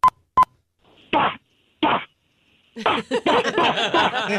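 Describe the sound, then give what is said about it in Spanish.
Two sharp clicks, then a person's voice mimics pistol shots with two short punchy bursts, followed by a fast, dense run of vocal bangs that blur together, fairly loud. “me hace falta que por favor me haga sonidos de disparos, de disparos de como de una pistola, como sonaría desde ahora ya.”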